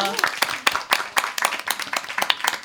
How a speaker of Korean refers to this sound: 네, 이 킹어를 열심히 읽어주신 여러분께 다시 한번 큰 박수를 드립니다. 감사합니다.